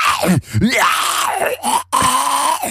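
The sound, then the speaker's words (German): A voice imitates a zombie groan: drawn-out, strained moaning and gurgling vocal sounds in several loud bursts with brief breaks, no clear words spoken. “falls das hier mal nicht mehr funktioniert, kannst du auf jeden Fall Zombie-Synchronsprecher werden”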